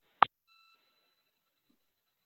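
A single short electronic beep from a phone keypad as a caller presses star two to raise their hand in a phone meeting, sharp and clear, followed by a faint lingering tone and then near silence. No one speaks.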